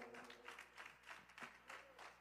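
An audience in a church applauds steadily, many hands clapping together in a dense, continuous patter that swells slightly in waves, over a faint low hum.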